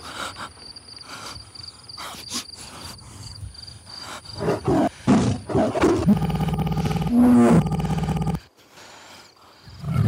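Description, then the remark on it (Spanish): A big cat's deep, rough growls build into a loud, sustained tiger roar, then break off abruptly, with a thin insect-like whine running steadily underneath. The roars are recordings of tigers and tigresses in heat, played from a portable loudspeaker used as a hunting decoy, heard in a valley. “El tigre al que disparó Mariló era, en realidad, un señuelo de caza que José Luis había comprado por internet dos días atrás.”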